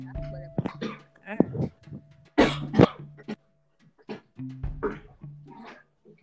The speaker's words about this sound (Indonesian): Oh my god, saudara-saudara gue sewot dong mohon maaf lahir batin gue batuk dulu ya.